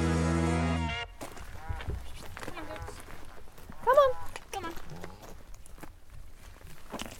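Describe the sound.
Bardsey goats' hooves, including the kid Snowdrop, patter and tap irregularly on the ground, a scattering of light steps while people talk softly and call the goats, after a brief snatch of music at the start.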